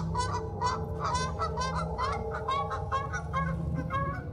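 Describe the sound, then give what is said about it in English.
A flock of Canada geese honks nonstop, overlapping nasal calls tumbling over one another in a dense, fairly loud chorus above a low steady rumble, with no one speaking. “Canadian geese are crucified along top to act as a warning to other migratory fowl that might not respect national boundaries.”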